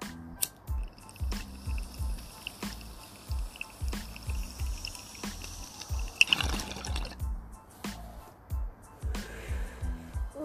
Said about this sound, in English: So let's take this bong hit to avoid answering that question. If you're avoiding answering that question, take a bong hit with me